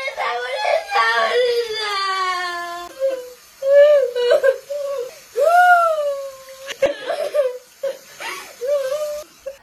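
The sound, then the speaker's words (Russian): A young girl cries in a panicky, sobbing voice, afraid she may have coronavirus on her hands, with rising and falling wails broken by gasping breaths, fairly loud throughout. “видеоролик, в котором девочка на грани нервного срыва от страха, что у нее на руках может быть коронавирус.”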